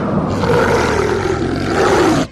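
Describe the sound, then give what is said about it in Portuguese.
A wolf's loud roar with a rough snarling growl as it leaps out of a grave, sustained for about two seconds before cutting off abruptly, with no other sounds around it. “Mas rapidamente ela é um lobo e ela pula para fora daquele buraco.”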